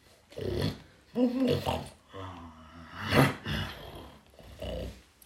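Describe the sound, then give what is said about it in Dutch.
A voice imitates a wolf's groaning and grumbling complaints as its belly is sewn shut with needle and thread: five or six drawn-out, throaty moans and growls in uneven bursts, moderately loud, with short pauses between. “Eh, ik hoor die wolf precies wel een beetje uh, klagen.”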